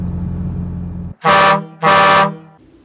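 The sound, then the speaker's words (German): Two loud, sustained air horn blasts, each about half a second long with a brief gap between them, rich and brassy, following a steady low engine-like rumble. “So, und wie immer, wenn die Lufthörner zweimal tuten, dann ist für mich im Prinzip die, Wochenende, die Woche beendet und wir kommen zum Schichtende.”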